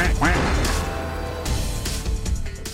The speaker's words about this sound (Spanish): Patito con todo y tu cortinilla muy elegante y tus efectos